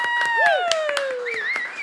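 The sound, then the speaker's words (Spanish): Scattered hand claps, about eight sharp hits at an uneven pace, ring out over steady tonal whistling that glides slowly downward and then wavers higher near the end. “Un aplauso para Remember.”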